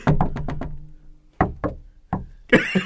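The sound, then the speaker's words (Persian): Crisp knocking tapped out as a Morse code reply in patterned groups, a quick run of five raps, a pause, then a pair and a few scattered knocks, with some rustling at the end. “نه نه اول باید همراه با صدا هم باشه دیگه چون من من چیزی ندارم بزنم در جواب بدم باید کد مورس باشه اینجوری شما مثلا اینجوری”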